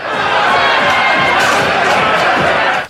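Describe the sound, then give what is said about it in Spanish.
A crowd shouting outside during a swearing-in ceremony of deputies, calling them traitors, many voices merging into a loud, continuous roar that holds steady for about three seconds before cutting off abruptly. “Oye, pero la gente que gritaba fuera o qué le decían?”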